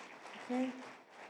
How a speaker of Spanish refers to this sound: ¿Puedes darle un aplauso a Dios por la vida de estos chicos?